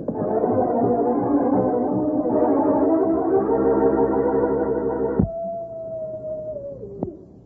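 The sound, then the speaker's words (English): Several wolves howl together in long, overlapping, loud wails, then the chorus cuts off and a single howl lingers and slides downward in pitch before fading. “Wolves! Wolves! And they're closing in.”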